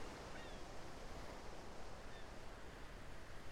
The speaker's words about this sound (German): Hörst dieses Plätschern der Wellen und fühlst die wärmende Sonne auf deiner Haut. Genieße diese wohltuende Umgebung des Meeres. Kleinen Wellen kommen und gehen, wie dein eigener Atem.